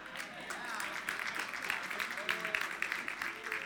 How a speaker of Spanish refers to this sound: Los hombres pueden aplaudir un poquitito más duro